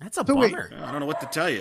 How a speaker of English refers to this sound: Sorry, that's my dog Lucy in the background.